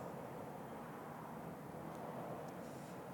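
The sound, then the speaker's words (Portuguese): A steady, broad roar of an airplane passing overhead fills the whole stretch, a continuous rumbling wash with no voices, fairly loud and unbroken from start to finish. “Deixa só o avião passar.”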